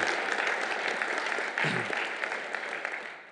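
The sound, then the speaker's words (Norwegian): A church audience claps steadily for the Sunday offering collection, a dense wash of many hands applauding at a fairly loud, even level that tapers off slightly toward the end, with a brief low murmur of voices partway through. “Og dere kan gjerne klappe for at det ble kollekten, for det var utrolig gøy å gi.”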